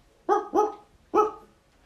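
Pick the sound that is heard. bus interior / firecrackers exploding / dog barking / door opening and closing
dog barking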